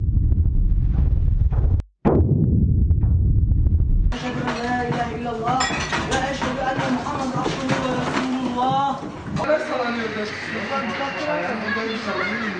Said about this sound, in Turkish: Baba o camı kırıcı vallahi orada sallana sallana geliyor. Abi var ya deprem oldu. Sakin olun. Açmayın durdu.